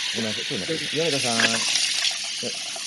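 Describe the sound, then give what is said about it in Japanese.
Steady hiss of a running tap while a person brushes their teeth in the background of a call, continuing as another person talks over it. “歯磨きしてるのはい、ちょっとすみませんミュートお願いしますはい。”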